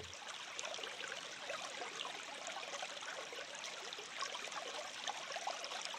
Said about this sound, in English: Or natural ambient recordings of things like rivers and streams.